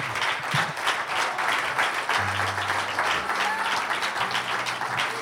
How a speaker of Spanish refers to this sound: Un aplauso al Señor.